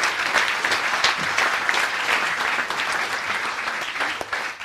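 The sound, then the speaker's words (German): Sustained audience applause for Minister Lucha after he answered questions, a dense wash of many hands clapping steadily at even loudness for several seconds, with no voices over it. “Vielleicht mal einen Applaus für den Minister Lucha, der sich hier den Fragen gestellt hat.”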